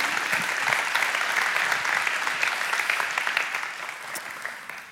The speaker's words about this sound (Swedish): En applåd! Välkommen.